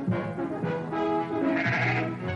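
Sheep bleat loudly, several wavering cries overlapping one after another with no pause, as if more than one animal is calling at once. No voices.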